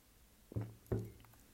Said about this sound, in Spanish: Voy a tomar un trago de agua.